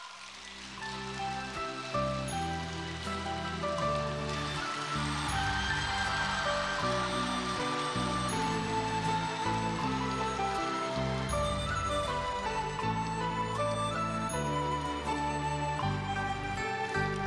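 A crowd applauds warmly to invite the respected station director to come up, a dense, even patter of clapping that never lets up for the whole stretch, with music playing underneath and a steady bass line moving in steps.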